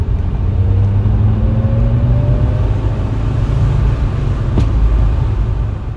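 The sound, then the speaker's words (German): A car engine drones steadily and climbs in pitch as it revs to about 3000 rpm while turning in a village, then one sharp, small backfire bang pops out near the end, loud over the continuous rumble. “Und dann beim Wenden in diesem Dorf, ich bin da so reingefahren, 3000 Touren und auf einmal bang, so ein richtig hat er richtig einen rausgerotzt, so ein kleiner Knall.”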